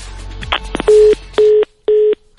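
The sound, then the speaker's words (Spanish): A few handling clicks, then three loud, evenly spaced telephone beeps, the steady pulsing tone of a line going dead after a call ends. “Ni mucho menos me cueles el teléfono.”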